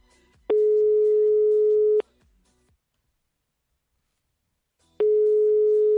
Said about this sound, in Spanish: vamos marcando ese número de teléfono, a ver si nos coge el, teléfono